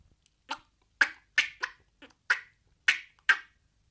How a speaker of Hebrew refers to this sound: היו למלך שלוש ציפורים, כנרי, תוכי